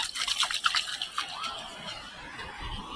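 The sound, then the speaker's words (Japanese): Ocean waves wash onto a beach where surfers are out, a steady hissing surf with splashy, fizzing bursts of water through the whole stretch. Nobody speaks. “波の音聞こえますか？”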